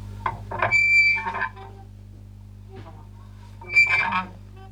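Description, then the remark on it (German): A Foley imitation of a small garden gate opening: two drawn-out creaking squeals with a thin whistling edge, like dry hinges, separated by a short pause, moderately loud over a steady low hum. “Das kriege ich jetzt so rein technisch, glaube ich, nicht so gut hin, aber einfach so dieses, dieses Öffnen von einem kleinen Garagentor, äh, Gartentor.”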